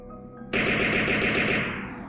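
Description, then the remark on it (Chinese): A sudden, loud burst of Type 97 assault rifle fire, roughly seven rapid shots in an even rhythm, followed by a fading ring, with no voices present. “他手上也没闲着，一搂火，九七突击步枪的枪口吐出一串火舌”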